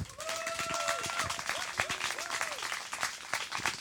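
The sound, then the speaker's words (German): An audience at a poetry slam applauds steadily for several seconds to welcome the first performer on a hot day of over 30 degrees, dense clapping with a few cheers and whoops rising over it. “Jedenfalls Bühne frei, erster Text, Applaus”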